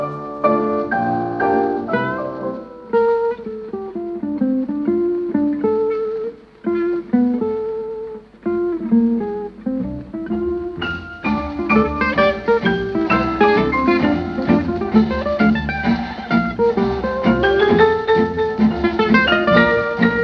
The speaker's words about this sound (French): On les écoute ici avec un extrait d'un morceau qu'ils ont enregistré en 1942.